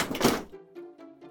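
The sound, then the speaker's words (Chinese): A metal can of fish, just opened with a can opener, is knocked over and tips with a loud hollow thunk, followed by three quicker tinny clatters as it rattles and settles, each leaving a faint metallic ring. No one speaks. “他兴奋地想要跟朋友们说，却一个不小心太着急，打翻了罐头。”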